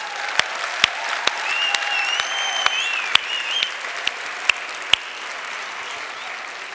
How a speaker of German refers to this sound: Yeah! Und wir geben den Applaus.